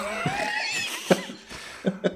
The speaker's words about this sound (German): … musste gerade sich einen Rülps verstecken.